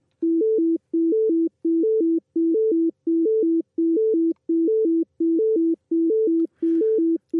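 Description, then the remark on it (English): Repeating ABA triplets of pure tones, low-high-low, used in research on hearing two separate sound streams, followed by a short gap, producing a steady galloping rhythm that continues throughout; a brief faint rustle appears near the end. “It sort of goes back into the ABAABA again.”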